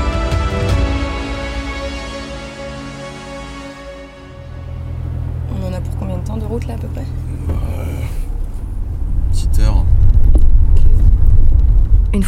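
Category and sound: vehicle, car driving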